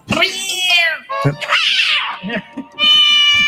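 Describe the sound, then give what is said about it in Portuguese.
A person mimics an irritated cat with loud, drawn-out whiny meows, one at the start and another at the end, with short muffled vocal noises in between. “Qual é o dia que os gatos ficam mais irritados?”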